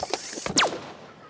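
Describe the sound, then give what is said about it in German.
A patented gnome net-catching cannon from Proll und Peter, with a magical coating, fires: a quick burst of mechanical clicking and ratcheting, then one loud, bright whoosh that sweeps sharply downward in pitch and fades into a soft hiss. No one speaks. “Zeit für meine patentierte Wichtel-Netzfangkanone aus dem Hause Proll und Peter mit magischer Beschichtung. Feuer frei!”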